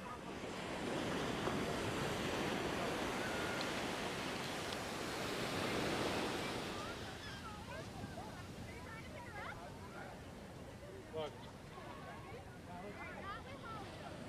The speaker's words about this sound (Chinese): 太平洋的大浪，这种浪温哥华是没有的，而且今天呢，算是没什么风。